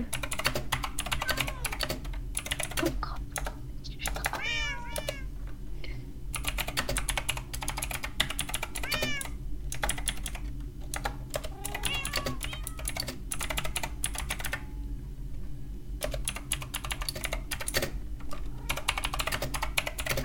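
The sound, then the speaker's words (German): Rapid clicking of a computer keyboard being typed on in steady bursts with short pauses as someone writes text on a sign, clear, while a cat meows a few times in the background. “Leute, schreibt mal das hier in die Kommentare, was ich hier gerade im Schild schreibe.”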